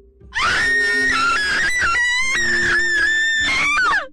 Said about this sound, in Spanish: ¿Qué te pasa? ¿Por qué estás gritando? Ay, lo siento mucho, es que tengo triscaidecafobia, entonces no puedo escuchar el número 13 en ningún lado, tampoco puedo verlo